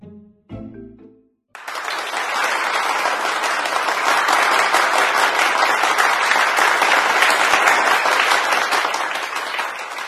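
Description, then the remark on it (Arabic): Loud, sustained applause from many hands fills an indoor room after a brief moment of speech at the start, holding steady and dense for several seconds. “وفجأة دوى تصفيق عال في أرجاء الحجرة”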